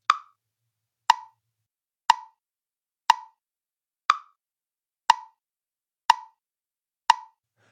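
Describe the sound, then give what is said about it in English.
A metronome ticks eight times at a steady one-second pulse, each click short, crisp and evenly loud, with silence between beats and no voices. “And the constant you will hear in every single room is a metronome, keeping the time click, click, click, click.”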